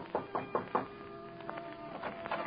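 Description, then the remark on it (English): Four quick, even knocks on the door of a 10th-floor suite at the Lorma Hotel on Park Avenue, in a steady rhythm, followed by a quiet stretch with a faint low hum and a few soft taps. No one speaks. “But then, how could I think that since Juan would not knock?”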